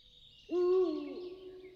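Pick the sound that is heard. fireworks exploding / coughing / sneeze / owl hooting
owl hooting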